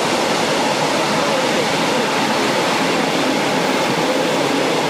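A train rolls past, producing a loud, steady rushing roar that stays constant throughout without breaks or distinct clacks.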